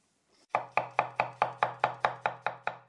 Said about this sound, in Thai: เสียงคนกำลังหันอะไรบนเขียงหรือเปล่าคะ ถูกต้องครับ แทนด้วยคำเรียนเสียงนี้เช่นกันครับตนตม